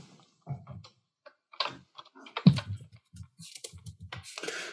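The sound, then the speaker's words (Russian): Quick, irregular keystrokes clatter on a computer keyboard as someone types a message asking viewers to refresh the page, moderately loud, with brief pauses between bursts of typing and no voices. “Так, попробую написать, что типа обновите страницу.”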